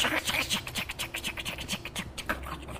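Dense, irregular crackling and popping from a burning forest fire, steady, with sharp snaps scattered over a continuous rustling roar and no voices.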